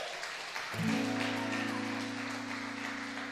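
An audience applauds God in a steady, dense wash of clapping. Partway through, a sustained low keyboard chord swells in and holds beneath the applause.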